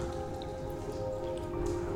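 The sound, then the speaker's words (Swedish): Water drips steadily from the ceiling in a damp, cold room holding saddles, blankets, halters, brushes and hay bales, scattered small drops pattering onto surfaces in an irregular rhythm over a constant low background wash, fairly quiet, with no voices. “Droppar från taket.”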